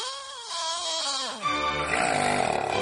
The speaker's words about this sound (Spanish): Si pasas las noches sufriendo por los ronquidos de tu pareja, tus hijos o tus papás, grábalos y mándanos el audio